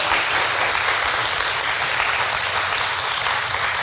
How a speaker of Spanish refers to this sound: Le damos un aplauso con todo cariño a Nilda